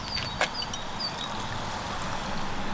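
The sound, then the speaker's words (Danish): A fizzy drink with ice cubes and lemon peel bubbles in a glass, a steady crackling hiss of popping bubbles with one brief sharper splash early on, and no voices. “Det bobler, og det summer.”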